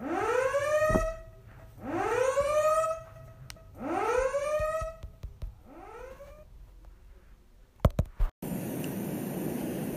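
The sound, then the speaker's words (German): An alarm siren whoops upward four times in a steady rhythm, each rising tone loud, the last one weaker, followed by a few sharp clicks and a burst of hiss. “Das waren viel Alarm.”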